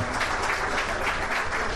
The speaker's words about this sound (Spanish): Un fuerte aplauso.